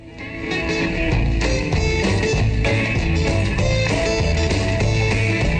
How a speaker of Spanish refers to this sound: es una, canción que surge de una improvisación sobre un riff de, de blues con su banda en directo y se convierte en este, en este tema que homenajea a otro de sus ídolos, que era …, y suena así.